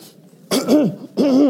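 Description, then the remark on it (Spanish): Two loud coughs from one person, each a harsh burst with a raspy, voiced edge, separated by a brief pause. There is no other talking around them. “Comienzo a tener problemas de la tos.”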